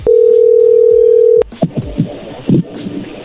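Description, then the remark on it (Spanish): A steady, mid-pitched telephone tone holds loud and unbroken for about a second and a half as a phone call goes through, then cuts off abruptly with a click, followed by muffled voice sounds over the line. “A ver, ya entró la llamada.”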